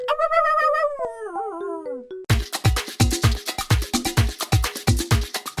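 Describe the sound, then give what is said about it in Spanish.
A video intro jingle: a bright, gliding tonal call that bends up and down, then a punchy, bouncy beat with steady drum hits and chiming notes, loud. “acabamos de escuchar el sonido característico con el que se abren todos los videos de YouTube de Chocolo”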